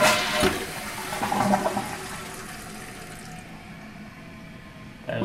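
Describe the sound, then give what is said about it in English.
A low-flow toilet using 0.93 gallons per flush flushes with a sharp whoosh of rushing water that gradually tapers into a quieter, steady refill hiss, with no voices present. “And 3 point, so 0.93 liters uh, gallons per flush. So it's a low, definitely a low flow toilet.”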